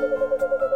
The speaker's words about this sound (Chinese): 这是猫头鹰的叫声。